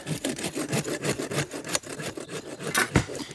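A hand saw cuts through wood in quick, steady back-and-forth strokes, each pass a rasping burst, with no one speaking.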